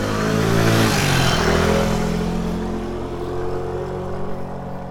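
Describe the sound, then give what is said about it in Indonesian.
A motorcycle engine revs loudly, its pitch sliding down after a brief surge and then settling into a steady, rumbling idle; the motorcycle is the one Laila rides to work. No voices are heard. “Sejak saat itu Laila masuk kerja menunggang motor.”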